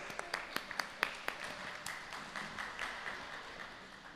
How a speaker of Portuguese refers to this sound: Vamos aplaudir mais uma vez.